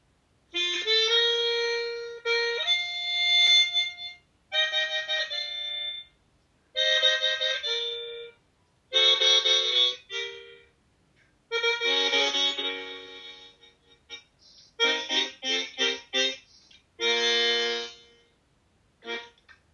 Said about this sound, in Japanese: 今回も素敵な、はい、はい、鍵盤ハーモニカの音とともに